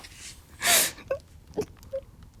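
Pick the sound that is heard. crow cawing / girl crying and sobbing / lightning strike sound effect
girl crying and sobbing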